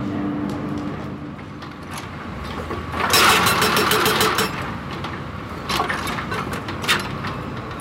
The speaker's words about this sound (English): Those sounds that you can hear in the background at the moment are from Al Tamman Indsil Ferrochrome, a ferrochrome production facility that's partially powered by renewable electricity from the Qabas solar farm.